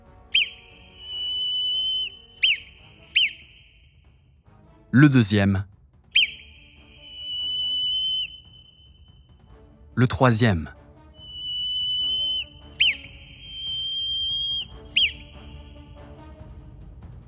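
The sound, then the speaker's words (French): A whistled Morse code message: three sequences of short and long steady whistle tones, clear, with a voice speaking briefly between sequences. “Le premier sifflement.”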